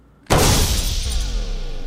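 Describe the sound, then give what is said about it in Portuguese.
A pistol shot suddenly bursts out of silence and blasts into a computer server, followed by a loud, sustained crash of shattering, rattling metal and debris that rings on without fading; no one speaks. “Saquei a pistola e dei um tiro em um dos servidores.”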